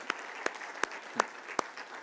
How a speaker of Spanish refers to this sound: Démosle un aplauso fuerte, fuerte, fuerte al Señor.